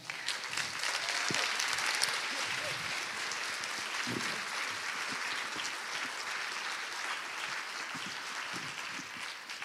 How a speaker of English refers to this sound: Um, thank you for sharing today. Give it up for our artists.